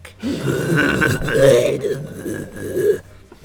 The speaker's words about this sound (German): Manchmal äh. muss ich aufstoßen.